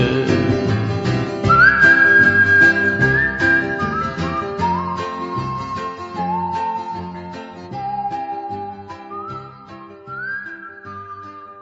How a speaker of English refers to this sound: Grandma whistling, what a friend we have in Jesus.